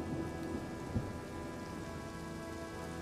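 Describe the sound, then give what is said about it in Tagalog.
Steady heavy rain of large drops pours down in a dense, continuous hiss along an open highway with no houses nearby. A low rumble of thunder rolls underneath, with a brief louder thump near the start. No voices are present. “Agad ko iyong tinakbo nang pumatak ang malalakas na butil ng ulan.”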